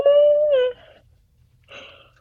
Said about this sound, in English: Are you yawning? Yeah. Are you tired? Yeah, I'm struggling.